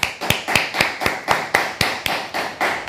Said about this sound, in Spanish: Vamos a darle un fuerte aplauso al Eterno.